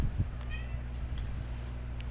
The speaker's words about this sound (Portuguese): Vocês vão escutar o gato, gritar, gato miando.